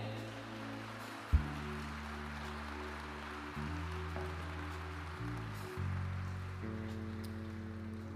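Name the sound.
audience applause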